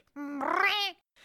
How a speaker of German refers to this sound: Sie drehen sich um, um doch wieder schnell zur Treppe nach draußen zu laufen, sehen, dass eine Katze in ihrem Weg steht, die sie mit großen roten Augen anschaut und böse maunzt.